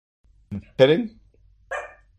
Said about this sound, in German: Immer diese kryptonischen Hunde.